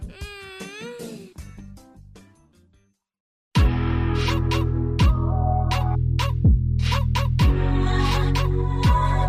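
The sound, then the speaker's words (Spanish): A voice imitates a goose honk with a brief, wavering nasal call. A short silence follows, then loud music with a steady pulsing beat starts. “definitivamente no sé cómo hace un cáncer entonces pues yo trato de hacer como hace un ganso.”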